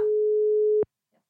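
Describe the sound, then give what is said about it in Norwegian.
A single steady electronic telephone ringback tone from a phone call being placed to a man sounds for almost a second at moderate loudness, then cuts off abruptly with a soft click, followed by near silence and a faint trace of sound. “Det er ikke sikkert han tar den, da. Jeg har ikke spurt på forhånd, men uh, vi kjører.”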